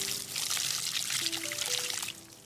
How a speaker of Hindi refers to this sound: अब दादाजी बोले अब इस जगह थोड़ा सा पानी डाल के इसे ऐसा ही छोड़ दो और संभाल कर गीली मिट्टी में फिसल न जाना फिरोज ने सावधानी के साथ मिट्टी में पानी डाला